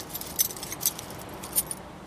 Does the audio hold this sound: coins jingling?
yes